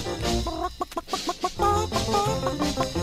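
A hen clucks in quick, bouncy bursts, a rapid run of short clucks in the middle, over a busy musical backing of a twist song.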